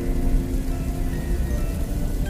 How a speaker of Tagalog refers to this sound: Isang malakas na kidlat muli ang maririnig mula sa kalangitan at muling bumuhos ang malakas na ulan.